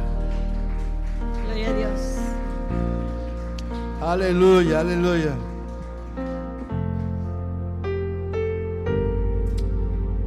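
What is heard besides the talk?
audience applauding loudly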